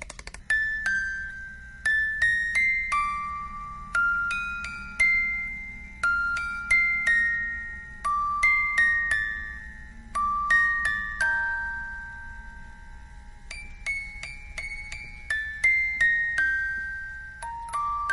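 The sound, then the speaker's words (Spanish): A small music box that was found plays a tinkling, high-pitched melody of plucked metallic notes, each ringing and decaying, in a steady lilting rhythm over a soft low hum, with no voices. “Una cajita de música que me he encontrado. ¿Quieres oír cómo suena?”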